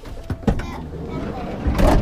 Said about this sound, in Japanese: わあスライドドアが勢いよく開いたね